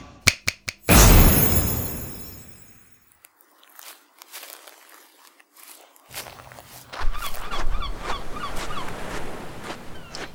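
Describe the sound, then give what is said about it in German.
Seagulls call repeatedly in the second half at a beach, a string of squawking cries over a steady rushing background, after a few crunchy footsteps and a loud burst of wind noise. “Hier im Hintergrund hört man ja auch die Möwen, jetzt vielleicht sogar lauter.”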